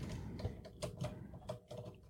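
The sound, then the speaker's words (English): Irregular clacking of keys as a child presses them on a computer keyboard, a string of quick uneven taps over a low background hum, fairly quiet, with no voices. “Now you're typing on Mama's keyboard.”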